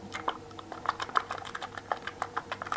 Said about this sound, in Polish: Słychać, tak? Że to mleko tam sobie w tej kapsule bulgocze, więc dla osoby niewidomej łatwo jest to rozpoznać, ponieważ tą esencją nie bulgoczą, bo to jest bardzo gęste